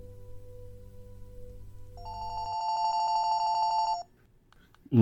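A low telephone line hum gives way to a single steady, buzzy ringback tone lasting about two seconds, then a brief hush before a voice begins right at the end.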